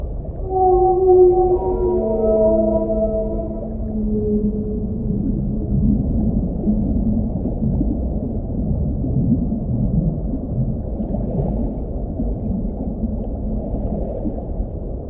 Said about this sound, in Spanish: Si hay algo que puede expresar el sonido del mar es el canto de las ballenas, que habiéndolo escuchado todo allí dentro, lo reproducen en lo que pareciera un llanto. Ese canto es el grito de los ahogados.